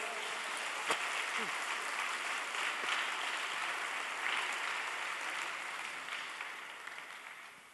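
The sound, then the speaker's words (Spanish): Steady applause from a crowd, given in honor of the Lord, a dense hiss of many hands clapping at an even level, slowly tapering near the end, with a few brief voices or shouts mixed in. “Alguien dele un aplauso de honra.”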